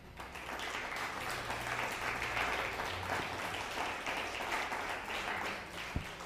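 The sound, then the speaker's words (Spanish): Steady applause from many hands, given as a shout-out to Nevada, a dense crackling wash that holds at an even level for several seconds with a faint low hum underneath. “Eh, desde Nevada, un fuerte aplauso a, a Nevada.”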